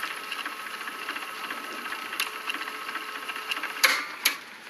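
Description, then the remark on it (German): A cassette tape whirs steadily as it rewinds to the beginning in a recorder in a study, a continuous mechanical hum, followed near the end by two sharp clicks as the machine's button is pressed. “Ohne zu klopfen ging ich in das Arbeitszimmer und legte die Kassette ein, spulte an den Anfang und drückte den Knopf.”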